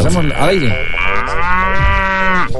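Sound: cow mooing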